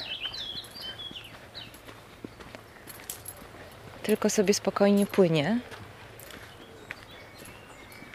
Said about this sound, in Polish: No i ptaki nam śpiewają, maj w końcu.